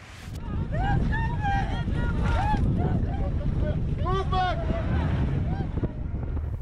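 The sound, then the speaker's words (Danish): Aboard Médecins Sans Frontières' rescue ship Dignity One on the Mediterranean Sea on a dark October evening in 2016, wind and fairly high waves make a steady, loud rumble while several voices call out indistinctly over the noise; all three decks are full of refugees rescued that day. “Nu kan du komme med ud på skibet en oktoberaften for to år siden.”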